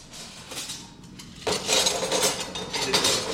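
Metal scissor dies, the moulds into which scissor blanks are struck, clink and rattle against each other as they're handled, a light jangle that grows busier and louder halfway through, with no talking.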